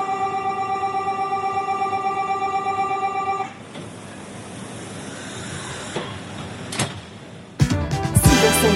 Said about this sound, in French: le TGV numéro 3635 à destination de Funky Pearl va partir. Prenez garde à la fermeture automatique des portes. Attention au départ.